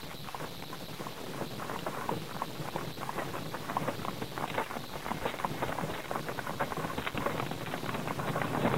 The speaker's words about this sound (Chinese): 马车声